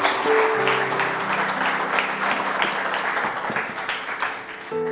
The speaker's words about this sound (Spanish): ¿Qué tal si le das un aplauso a Dios por la vida de ellos?